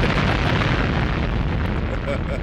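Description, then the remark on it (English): A loud explosion sound effect, heard as a dense, continuous roar and rumble that holds steady throughout without a clear decay, with no talking over it. “Another explosion.”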